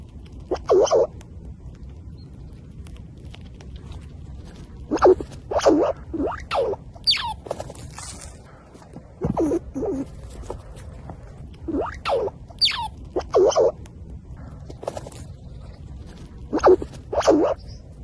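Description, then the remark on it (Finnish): A squirrel, recorded very close on a phone, gives a series of sharp clicking calls, short bright bursts that come in irregular clusters with a few quick squeaky sweeps between them, over a low steady background hiss. “Siis mä en ole äh. kuullut näin hyvää orava äänitettä. Siis todella läheltä ja sitten vielä tämä pikkasen erikoisempi ääni.”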